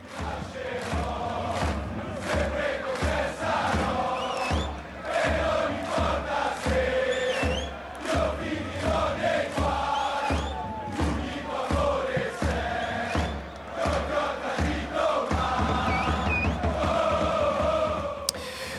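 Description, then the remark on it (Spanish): A large crowd of Milan football fans chants in unison, shouting and jumping, a loud, continuous chorus of massed voices with rhythmic pulses and steady energy throughout, with no pauses or individual speech. “a los hinchas, a, a quienes están, como ahora, les voy a poner el coro, gritan, saltan, corean, quedan roncos hasta el final.”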